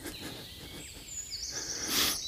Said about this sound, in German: ich bin gerade wirklich im Wald und es ist äh, Natur und ja, was ihr hier hört, ist wirklich so, ja.